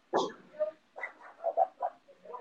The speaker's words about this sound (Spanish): Hoy, ella también quiere, mi perrita también quiere participar.